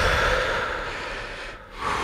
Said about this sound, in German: Ja, wir atmen nochmal kurz durch alle und dann stell gerne die Frage.